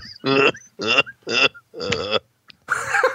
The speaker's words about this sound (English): Are you okay? Yes. Uh, got to clear my throat.